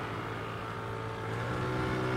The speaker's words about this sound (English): This was a small rubber dinghy with an outboard motor and two men on board. A smaller man standing at the front and a larger, heavier man at the back crouched over the outboard engine.